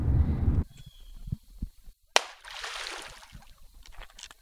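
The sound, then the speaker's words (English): A single sharp smack of sticks thrown into a river hitting the water, followed by a brief rushing splash, heard outdoors with low wind rumble and faint background sounds. “me and my dad, throwing down at the river some sticks.”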